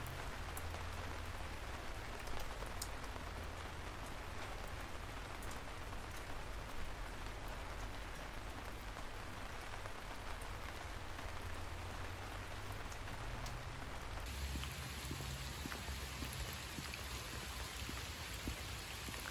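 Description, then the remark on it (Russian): Raindrops patter steadily and densely on the hood of a raincoat in rainy weather, a continuous crackling tap with no voices, holding an even loudness throughout. “Я очень люблю дождь и такую погоду, когда можно надеть единственные непромокающие ботинки и любимый дождевик и слушать, как по капюшону стучат капли дождя.”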